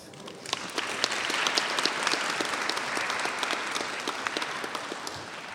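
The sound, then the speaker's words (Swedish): An audience applauds steadily, a dense wash of many hands clapping at a fairly even level for several seconds, with sharper individual claps standing out, and no one speaking, at a KFUM choir Christmas concert, applauding the day's soloist as she stands up. “Kan, du kan resa på dig och få en applåd, tycker jag.”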